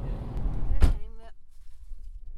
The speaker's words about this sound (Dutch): Hier hoor je mij worstelen met het uit de auto halen van ons kind en alle spullen die mee moesten.